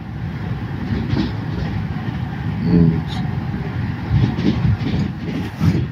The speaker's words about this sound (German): Ich bin weit weg von zu Hause und ich liege in einem Zug. Es rattert. Und jemand schnarcht.